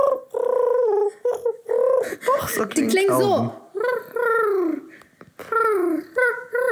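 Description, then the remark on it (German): A person imitates pigeon cooing with warbling, throaty vocal sounds, mixed with loud talking and laughter-like voices from several people. “So klingt eine scheiß Taube.”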